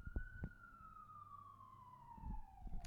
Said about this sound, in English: You hear that? You hear that siren? Messing up my mojo. Here, I'll put the mic up to my window.